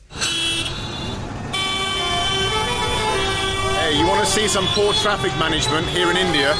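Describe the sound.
Dense street traffic in Delhi, India, with car horns honking repeatedly and overlapping, some long sustained blasts, over a steady rumble of engines; voices are faintly audible in the busy mix.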